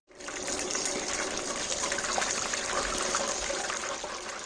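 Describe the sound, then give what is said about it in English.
A deep fryer sizzles loudly and steadily, a dense hiss of bubbling oil with fine crackles running throughout, with no voices. “So let's wrap those chips up to keep them warm. And next into the fryer”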